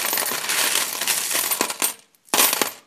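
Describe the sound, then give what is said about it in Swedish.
Coins jangle and clatter inside a metal tin savings box that also holds leftover banknotes from a trip to the USA, a dense bright rattle with a few sharper clinks, a brief pause, then another burst of shaking. “Här finns en massa mynt och eh, överloppssedlar från senaste resan vi var till USA och förstås större sedlar.”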